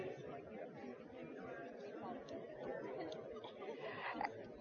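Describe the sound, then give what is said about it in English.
A steady murmur of many overlapping voices from a crowd talking to their neighbours, muffled and indistinct so no words can be made out, holding at an even level throughout. “You hear what that sounds like? A bunch of mumble. Nothing that you can make out, but a bunch of mumble.”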